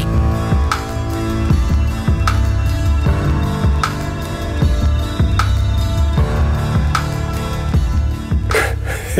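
A slow, moody music track with a steady heartbeat-like drum thump recurring about every second and a half, layered over sustained low bass and soft melodic tones, with no voices.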